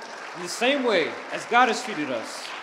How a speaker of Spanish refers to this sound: Si lo creen un aplauso al Señor en esta mañana.